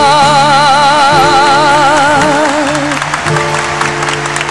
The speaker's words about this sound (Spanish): Aplauso, aplauso fuerte a nuestra voz nacional